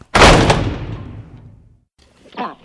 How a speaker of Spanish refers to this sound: Pero miren esos ojos, dijo el pato, y se fue tirando un portazo.